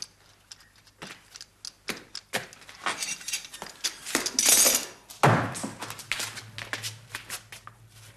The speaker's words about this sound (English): I saw him shut the door. He didn't want us to hear.